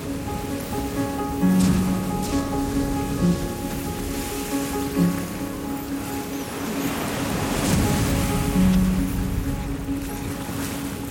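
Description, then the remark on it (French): An ocean wave breaks over a small inflatable boat, fully swamping it, a loud rushing surge of water swelling near the end over constant sea noise and a steady low hum, with no one speaking. “Je réalise qu'une vague vient de déferler sur nous.”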